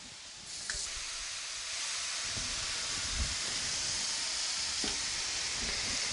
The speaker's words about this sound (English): Now we're putting hamburger in a pan.